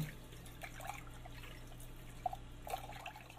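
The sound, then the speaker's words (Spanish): Quiet, steady running water as soap is rinsed off a plate while washing the dishes, with a few brief sharper splashes and a faint low hum underneath; no one speaks. “Espérame tantito, que estoy lavando los platos. Siento la temperatura del agua, cómo resbala por el plato enjuagando todo el jabón.”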